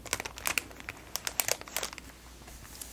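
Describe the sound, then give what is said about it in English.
Crisp crinkling of a thin plastic sleeve on a pack of sticky notes, a run of irregular sharp crackles over a few seconds that thins out toward the end, with no talking. “I even kept this plastic sleeve on these sticky notes for the sounds.”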